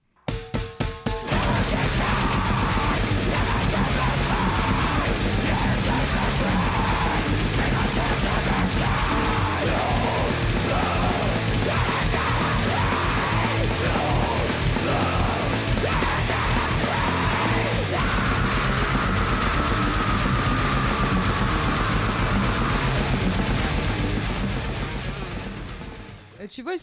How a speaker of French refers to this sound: Putain, mais. c'est du grind.